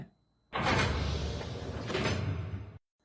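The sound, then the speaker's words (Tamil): A heavy panel, a shelf in a doctor's clinic that opens like a door, slides open with a steady, grinding rumble lasting a couple of seconds, loud, then stops abruptly; no voices accompany it. “என்ன ஏதோ கதவு மாதிரி திறக்குது ஓ அது அன்லாக் பண்ணுற சவுண்ட் பேட்டனா”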